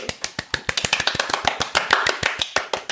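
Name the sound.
applause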